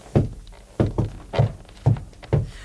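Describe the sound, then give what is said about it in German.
Someone knocks on a floor while searching for a hidden safe: six dull, heavy thuds in an uneven rhythm, each a low, solid knock with a short ring, with no talking. “Ich klopfe mal den Fußboden ab.”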